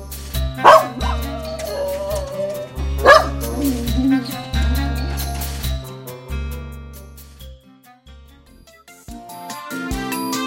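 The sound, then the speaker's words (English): A dog barks sharply twice, a few seconds apart, with yippy, whining tails to each bark, loud over steady background music. “No, a dog.”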